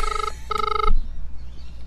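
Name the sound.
telephone ringing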